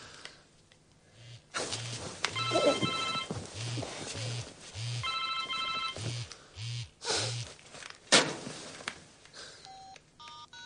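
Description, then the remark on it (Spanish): A mobile phone, taken from a sofa in a living room, rings out with a steady series of short repeating tones as another call is made, mixed with a few brighter electronic beeps like keypad presses, fairly clear with some faint background noise. “Hace otra llamada.”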